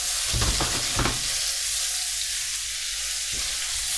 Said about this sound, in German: Also ihr hört es schnurbeln und es brutzelt. Das ist doch schön.